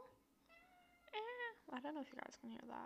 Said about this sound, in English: Did y'all hear that? That was the cat. They have she she she has this little mat thing that she plays on, and now she's meowing.